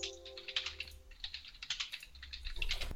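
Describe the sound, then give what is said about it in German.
Rapid, uneven clicking of computer keys being typed on, fairly quiet, with a low steady hum underneath and no voices. “gehe jetzt hier gerade immer noch rauf, Moment, weil Westen, ich mich ständig vertippe.”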